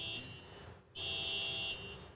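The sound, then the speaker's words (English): A car alarm blares in repeating electronic bursts, a steady high-pitched tone cutting on and off with a short gap, with faint background hum. “And that is somebody's car alarm going off.”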